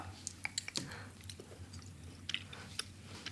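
Close-up chewing of something sticky and dried, with irregular wet clicks and soft squishy bites scattered across a few seconds over a faint low hum, no one speaking.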